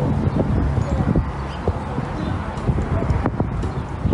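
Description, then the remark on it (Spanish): Horse hooves clip-clop in a steady rhythm across the whole stretch at a ranch, with a bit of outdoor rustle and voices mixed underneath. “Miren los caballos, qué lindo.”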